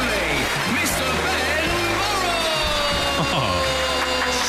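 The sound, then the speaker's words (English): A studio audience at the 2020 Reliability Awards, broadcast live from One Golden Square, claps in a dense, steady wash of applause that stays loud and unbroken for the whole stretch, with voices and some tonal sounds mixed underneath. “People are clapping in the studio.”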